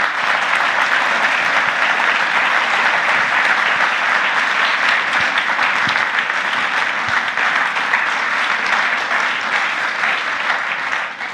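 Sustained audience applause welcoming a guest, a dense steady patter of many hands clapping at even loudness for over ten seconds, fading slightly at the very end. No voices stand out.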